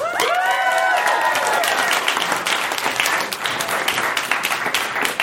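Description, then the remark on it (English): Steady, dense applause from a sizable live audience, with a few cheers and whoops rising at the start before settling into sustained clapping. “How many people in our hotel room have, have heard the podcast? By round of applause.”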